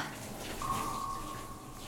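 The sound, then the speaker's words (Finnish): Shower water runs over a person's face and body and drains into a floor drain in a steady, hissing rush with no voices. Partway through, a thin, high whistle like a pipe or faucet whine joins and holds to the end. “Vesi valuu naamalle niin, että vain suu ja nenä saa ilmaa.”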